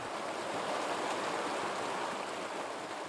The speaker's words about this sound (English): It flows down the mountainside into Maggie Valley and forms Jonathan Creek.